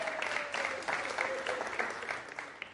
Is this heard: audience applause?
yes